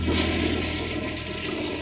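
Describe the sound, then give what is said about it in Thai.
A toilet in a spacious, clean bathroom is flushed to test that it works, a steady rushing gush of water that fills the whole short stretch without easing off. No voices are heard. “มันเป็นห้องน้ำกว้างพอสมควร สะอาดเหมือนมีการดูแลตลอด ผมลองเปิดน้ำที่อ่างดู มันยังใช้ได้ดี เช่นเดียวกับชักโครก”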